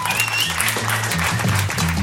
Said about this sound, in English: Big round of applause for all of your round one comics.